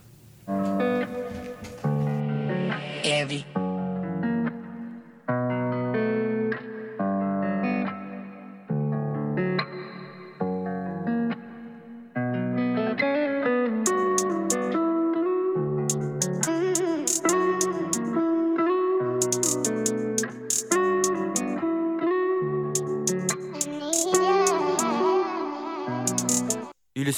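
A song plays steadily for the whole stretch as a musical break on Radio Campus Tour, with layered melodic instruments and a fuller, louder section building in the second half before it cuts off abruptly.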